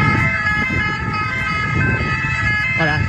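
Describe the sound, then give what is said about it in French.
A dense wall of about 200 ambulance sirens wails together at an ambulance workers' protest on the place de la Concorde in Paris, in front of the Assemblée nationale, at dawn. Their overlapping tones form a loud, continuous cacophony over the low rumble of crowd and traffic noise. “Un millier de personnes, 200 ambulances, toutes sirènes hurlantes, ont envahi la place de la Concorde juste devant l'Assemblée nationale.”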